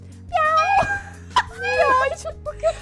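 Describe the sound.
A person's voice imitates a cat, giving two drawn-out, wavering meows followed by a few short, clipped mews, loud, with no other talking.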